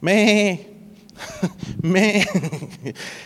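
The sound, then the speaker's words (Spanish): A man's voice imitates a sheep bleating, giving two quavering, nasal cries, with a brief stretch of ordinary speech between them. “Yo no sé cómo, cómo cantan o cómo chillan las ovejas.”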